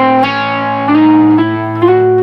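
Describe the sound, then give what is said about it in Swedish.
An electric guitar with a slightly distorted, effected tone plays a symmetrical diminished scale (half step, whole step) in A, single notes stepping upward over a sustained open A string drone. It rings steadily and moderately loud, with no voices. “Så skalan låter så här om man...”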